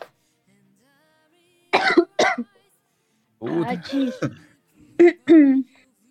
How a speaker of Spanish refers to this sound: ¿No les pasa eso que cuando se ríen mucho tosen?